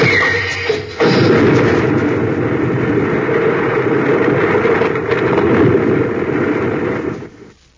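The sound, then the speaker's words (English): A sci-fi blast gun, aimed by Sharn, fires and blows apart an overhanging rock on a sheer cliff: a sudden loud burst erupts after a brief quiet lead-in, then a dense roaring rumble sustains for about six seconds before fading out. “He blasted that overhanging rock.”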